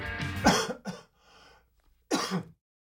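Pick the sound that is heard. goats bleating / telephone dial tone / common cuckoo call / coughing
coughing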